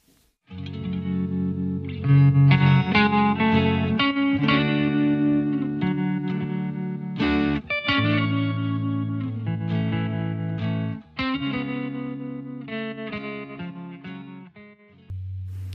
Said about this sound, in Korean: 노래 한 곡 바로 드리는 거죠. 아무래도 뭐 기생충 하면 또 이 노래잖아요.